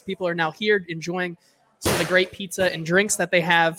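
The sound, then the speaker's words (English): A door slams shut with one sharp, loud bang that cuts into a brief pause, while a man talks steadily before and after it; the door is a little loud, with many kids playing outside on the playground. “If you hear that door, it's because there's a lot of kids outside playing on the playground, and, and the door is a little loud.”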